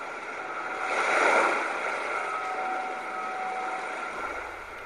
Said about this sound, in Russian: Через другой динамик передается шум волн, символизирующий море, которое отделяет остров от материка.